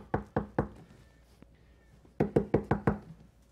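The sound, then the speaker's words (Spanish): Someone knocks on a door, three firm raps, then after a short pause a quicker burst of five more, loud, with no voices. “¿Quién quisiera que le toquen la puerta a medianoche?”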